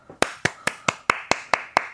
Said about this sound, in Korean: 여러분들 큰 박수 부탁드립니다.